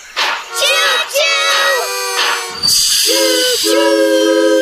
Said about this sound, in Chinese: 你能帮助我们让火车鸣笛吗？太好了，拉一下汽笛，然后说啾啾。